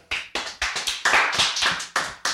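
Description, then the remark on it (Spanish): A short round of hand clapping for the winner of a football prediction pool (super quiniela): about ten sharp, crisp claps in a quick, fairly steady rhythm, moderately loud and with no talking over them. “Un aplauso a Luisa.”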